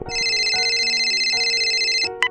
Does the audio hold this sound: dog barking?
no